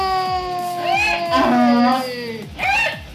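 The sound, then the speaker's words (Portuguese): A human voice imitates a donkey's bray: a strained, harmonic call that rises and wavers in pitch, then a shorter second burst, loud throughout with no other talk. “Eu acho que é um burro jumento.”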